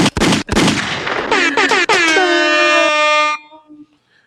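A quick burst of loud gunshot sound effects, several sharp bangs in rapid succession, followed by a long, blaring air horn that holds steady before cutting off.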